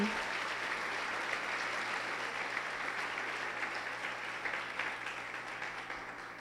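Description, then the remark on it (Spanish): Sustained audience applause given to God during a sermon, a dense, steady wash of many hands clapping at fairly even loudness that tapers slightly toward the end, with no talking over it. “Y muy bien, dale un aplauso fuerte a Él.”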